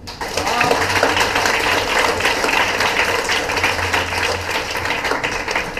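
Sustained audience applause: dense, crackling clapping from many hands at a steady, fairly loud level for about six seconds, with no one speaking over it.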